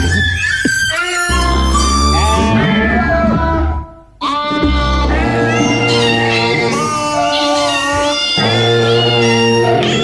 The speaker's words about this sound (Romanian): Mai lasă-l un pic. Acum au intrat pisicile.